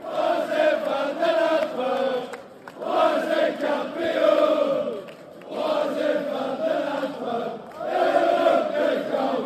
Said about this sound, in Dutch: Want de fans van de Antwerp die proberen nu ook een, eh, een nummer voor Toby Alderweireld te lanceren. Ik zat anders even laten horen.